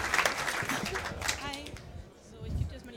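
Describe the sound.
A short burst of audience applause for the woman at the microphone, dense overlapping claps for a couple of seconds before thinning out, with a bit of voice mixed in.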